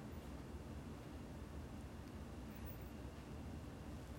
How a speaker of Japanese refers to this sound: 19度にして窓を開けるんだよね窓を開けてる雨の音入ってるかもしれない